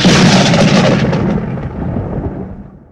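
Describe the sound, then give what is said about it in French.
A loud thunder clap from lightning bursts with broad rumbling energy, then rolls and slowly fades over a few seconds with no voices present. “Un éclair retentit à nouveau”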